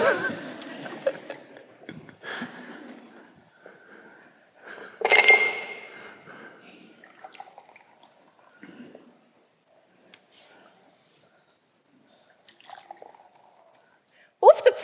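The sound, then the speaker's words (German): Glasses clink together in a bright, ringing toast, with a cluster of sharp chimes near the middle and a few fainter taps later, amid low talking and shuffling. “Ich würde vorschlagen, wir trinken das Glas.”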